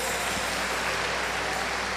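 An audience applauds the Lord, a dense, continuous wash of many hands clapping at once, fairly loud and sustained throughout with no voices standing out.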